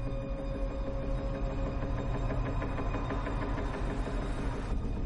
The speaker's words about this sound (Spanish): Un coche dobla una esquina.